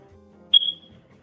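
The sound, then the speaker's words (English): A single short, high-pitched electronic chirp from a smoke detector with a low battery sounds once against a quiet background with a faint low hum. “Why are people saying that they're hearing a smoke detector going on?”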